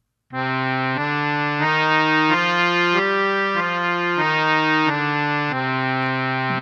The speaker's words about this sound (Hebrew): עכשיו שימו לב לצליל השלישי. זה, זה רגיל, דו מז'ור. אפשר להפוך אותו למינור.